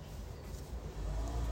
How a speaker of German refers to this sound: wir haben das Fenster auf. Also, wenn ihr irgendwie Autos hört und Busse und alles, dann.